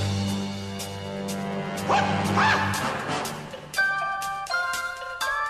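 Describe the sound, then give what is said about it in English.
Martial arts film theme music with steady low bass notes and regular percussive hits, a shrill rising shriek in the middle, then bright, sharp stabbed chords toward the end. “this is the theme song from Enter the Dragon, Bruce Lee, the martial artist out of Hong Kong”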